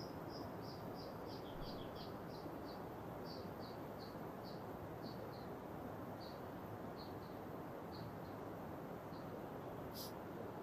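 A bird sings a steady series of short, high chirps, repeated every half second or so, over the constant loud rush of a flowing river outdoors.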